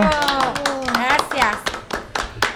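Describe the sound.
Hands clap in a quick, uneven burst of sharp, crisp smacks, like a small round of applause for the digital controls operator of a Promo Estéreo radio program, with a voice talking over the claps the whole time.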